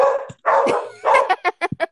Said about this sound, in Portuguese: Nossa, olha, tem os cachorros latindo aqui.